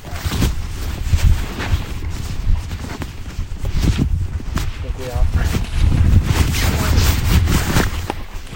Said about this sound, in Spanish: Para, o sea, en el bolsillo si quieres. Sí, vais a escuchar ruidos de mi bolsillo y ahora mismo saco el móvil otra vez.